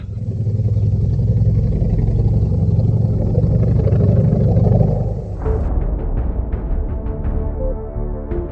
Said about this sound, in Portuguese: Para a surpresa de todos, o ruído que se aproxima revela uma moto Harley Davidson com um homem baleado em cima dela.